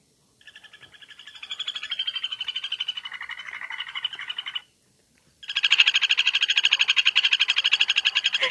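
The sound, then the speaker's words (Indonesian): A kuntilanak bird gives a rapid, giggle-like trilling call in two loud bursts, with a brief silent pause between them and no one talking. “Gue pun baru tahu lah kalau ini burung kuntilanak”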